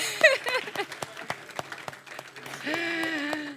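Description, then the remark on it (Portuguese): Scattered, irregular hand claps from a small group ring out over about three seconds, mixed with excited voices and a sustained vocal cheer toward the end. “Uma salva de palmas essa minha amiga.”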